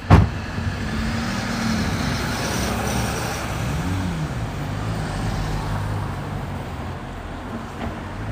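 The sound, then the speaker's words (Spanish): A car engine rumbles over steady road noise, its pitch swelling and dipping briefly midway, with a sharp bump at the start and no voices. “Ernestito Martínez se arrojó bajo las ruedas del coche más cercano”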